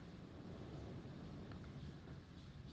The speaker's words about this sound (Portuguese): Ouça o mar.